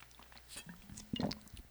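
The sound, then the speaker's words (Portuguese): Someone takes a sip of water: soft wet mouth and lip sounds, then a short louder gulp as the water is swallowed, all quiet with no talking. “eu vou tomar um gole d'água porque...”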